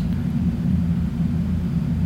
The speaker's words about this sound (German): Das ist der Wind, das lass ich nicht zählen. Mm -mm. Ey, hier zieht's in allen Ecken und Enden.